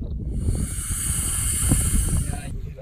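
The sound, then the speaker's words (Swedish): A female alligator guarding her nest of sawgrass tussocks on a raised mound, tired of people's mobile phones and curiosity, lets out a long, steady, breathy, threatening hiss lasting over two seconds, harsh and airy, with low rumbling noise underneath before it cuts off abruptly. “Men mamma alligator tröttnar på våra mobiltelefoner och påträngande nyfikenhet. Hon börjar väsa hotfullt.”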